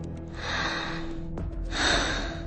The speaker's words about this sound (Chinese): 方墨耳后一颤，听见了一道呼吸声。门后有人，有人与他隔着房门而待。